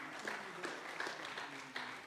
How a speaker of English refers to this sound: So give God a strong hand clap for the 30 ministries Come on now.